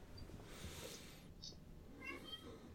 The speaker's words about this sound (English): I'm going to have to sh- let this fucking cat out just to shut him up.